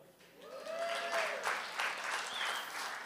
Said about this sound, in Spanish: Un aplauso al pastor.